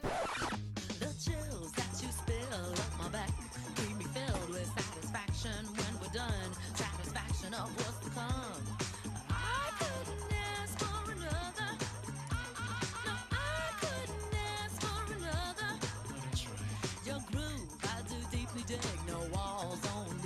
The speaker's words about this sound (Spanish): La canción suena así.